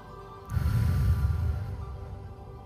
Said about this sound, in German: Gemeinsam atmen wir jetzt durch den Mund tief ein und atmen unseren Atem in den Luftballon aus.